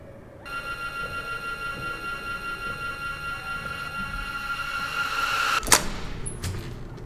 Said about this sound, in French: Regarde, regarde, la porte, elle s'ouvre.